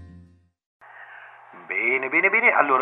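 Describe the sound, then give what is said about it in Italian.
A radio sound effect on Radio Yoga Network: a brief low hum, a short pause, then a thin, tinny band-limited sound like a voice squeezed through a small radio speaker, growing louder and more voice-like toward the end. “sentiamo l'effetto radio, eccolo qui, ci siamo.”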